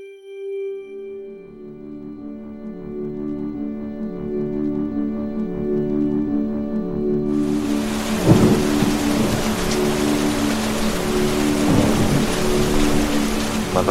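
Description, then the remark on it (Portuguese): A sustained tonal drone gives way halfway through to a sudden downpour of heavy rain, with two deep rumbles of thunder rolling through the steady hiss. “desperta sob uma chuva densa de gosto metálico.”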